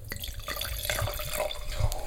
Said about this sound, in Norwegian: Vi er øh, denne vinen vi skal øh, leike med i dag. Eh, jeg heller oppi glasset ditt med en gang.